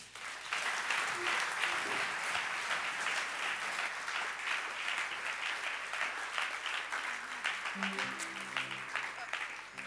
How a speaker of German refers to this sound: Lass uns ihnen einen riesen Applaus geben.